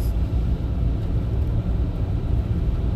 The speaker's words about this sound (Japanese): あもう僕の一歩が初の足跡みたいな感じで車を運転しています30キロでね